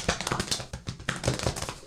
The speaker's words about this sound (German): Mein Vater hat das immer so, so einen geilen Move, wo er sich so auf die Schulter klopft, aber die Hände dabei auch noch so klatschen. Ich krieg das nicht hin, aber.